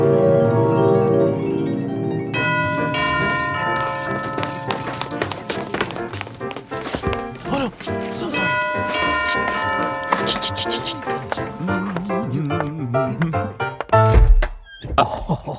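A doorbell at Olivia's mansion chimes through a ringing, multi-note tune, its tones overlapping and lingering, fairly loud, with a brief thump near the end.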